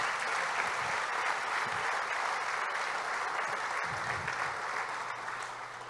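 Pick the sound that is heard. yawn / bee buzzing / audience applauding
audience applauding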